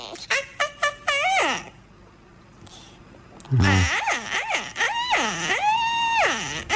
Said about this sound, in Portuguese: Mas ah, para quem não apanhou, portanto, isto é, isto é som do é, do periquito. Se, quiseres, podes, podes repetir o som do é periquito.